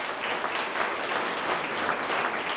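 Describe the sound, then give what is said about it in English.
An audience claps together in a dense, steady wash of applause that holds at an even level for a few seconds, with no voices standing out. “Give it up”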